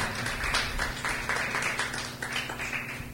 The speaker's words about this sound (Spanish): Dele el aplauso al Señor.